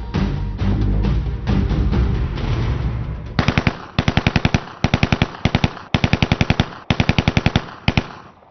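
A DShK heavy machine gun fires short, loud bursts of rapid, evenly spaced shots after a few seconds of dense low rumbling, with brief pauses between bursts and no talking.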